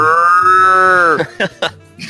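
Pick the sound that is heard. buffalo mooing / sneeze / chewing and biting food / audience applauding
buffalo mooing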